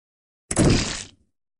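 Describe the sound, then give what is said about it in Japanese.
A single loud, abrupt crack and crunching crash as an unlocked door, blocked by something jammed on the other side, is pushed hard by its handle and forced open, lasting about half a second before cutting off into silence. “拉致が開かないので、ドアを壊すくらいのつもりで強く押した。”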